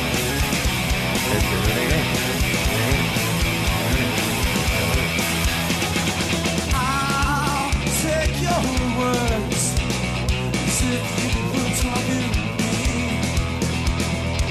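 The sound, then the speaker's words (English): A loud, dense rock band plays live, with driving drums and distorted guitars; the second guitar picks out quick hammered-on note runs that ripple over the steady full-band wall of sound. “You really hear the those hammer-ons on the second guitar here.”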